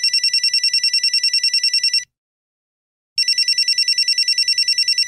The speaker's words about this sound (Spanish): sonó el teléfono de Tijereto